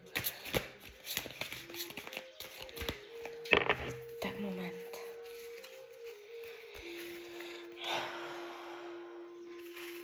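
Tarot cards being shuffled for a reading, a run of soft papery riffles and slaps in uneven bursts, with a steady faint tone humming underneath throughout.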